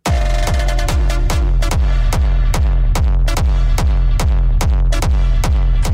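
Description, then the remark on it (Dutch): A dull, heavy hardcore gabber kick drum pounds in a steady, fast four-on-the-floor beat, loud and booming with a distorted low thud, with no voices. “Daar hoor je weer die, die heel doffe kick die heel herkenbaar is voor dat hardcore genre.”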